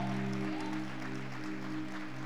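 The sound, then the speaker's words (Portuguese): An audience applauding the Lord in a steady, dense wash of clapping that lasts throughout, with a sustained low musical chord humming underneath. “Aplauda o Senhor.”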